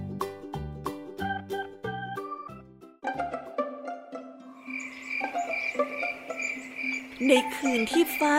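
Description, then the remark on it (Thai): A few plucked musical notes give way to a dense, steady chorus of crickets chirping at night, with frogs croaking among them, continuous, with no one talking. “มีแต่เสียงจิ้งหรีดเรไล”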